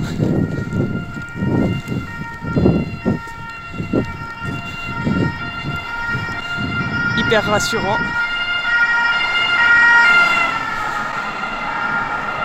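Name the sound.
distant emergency vehicle siren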